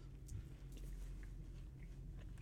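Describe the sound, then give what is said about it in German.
Wet chewing of a sticky licorice toffee candy with fizzy powder inside, chewed without swallowing so it sticks in the teeth; a steady run of squelchy mouth sounds with soft clicks over a low rumbling background, no talking. “Ja, das muss man auch so, so hässlich kauen, das kann man dann nicht schlucken und dann hängt das nachher richtig schön in den Zähnen.”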